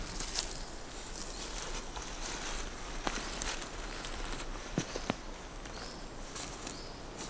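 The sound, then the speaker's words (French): Crunching footsteps on dry ground, a steady crackly rustle with a few sharper snaps standing out, heard fairly quietly with no voices. “Ça croustille.”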